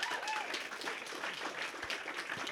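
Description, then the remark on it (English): A crowd applauds steadily for a person who has come forward to publicly commit to following Jesus, a dense, continuous patter of many hands clapping at an even loudness throughout, with faint voices mixed into the noise. “Yeah, you can clap for him. Clap for him.”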